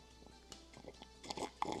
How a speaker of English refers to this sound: I'm just gonna take another sip of orange juice to clear my throat out.